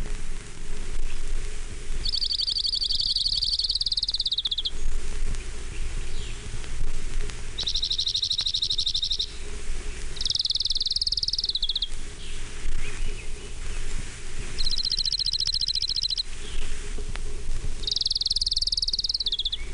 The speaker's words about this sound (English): orange-crowned warbler.